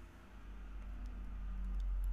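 A car or truck rumbles past outside, a deep low drone that swells steadily louder over a couple of seconds, with no one talking.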